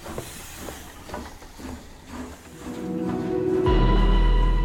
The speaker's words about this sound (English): Susan, alone on the platform, watches Frederick's train leave the station.